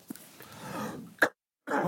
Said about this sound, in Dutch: Ondertussen hoest ik.